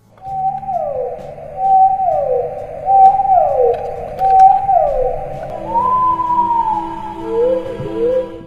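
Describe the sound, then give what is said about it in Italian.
A whale call sound effect: a series of four or five moaning tones that slide downward, then a longer sustained note and a few rising wails, with no speech. “Eh, no, non quelle balene.”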